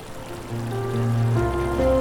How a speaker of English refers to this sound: In this time of calm, and only sound a constant rumble travelled through the space the sound of the rivers rushing down the mountains into the lake.